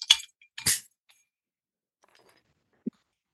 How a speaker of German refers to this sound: ich stoße hier mal mit irgendwas an. Ne?